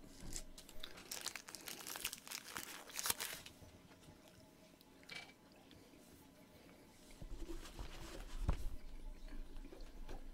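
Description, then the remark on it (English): Crinkling of a food wrapper while someone eats, with bursts of crackly rustling in the first few seconds and again near the end, separated by a quieter stretch; no one speaks. “Sorry, I'm eating.”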